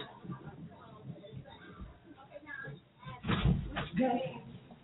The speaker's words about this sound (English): Oh, somebody is banging on my door like they the police. I'm like, so what I'm going to do is I'm going to try to play something real quick, and then I am going to come back and see who's slamming on my door like the police.